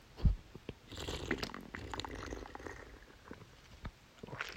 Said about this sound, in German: Ihr kriegt jetzt noch ein bisschen Drink ASMR. Oh, because we have to do it very closely on the microphone.